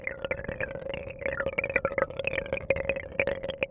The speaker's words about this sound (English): The water from the filter cascading into the tank.